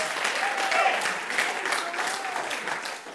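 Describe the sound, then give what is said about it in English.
An audience claps hands in a dense, steady burst of applause lasting about three seconds, with faint voices calling out beneath the clapping before it tapers slightly at the end. “Oh, clap your hands, all you peoples, and shout to God with a voice of triumph.”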